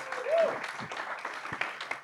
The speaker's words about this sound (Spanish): Antes de, ah, bueno, adelante un aplauso para, para los panelistas.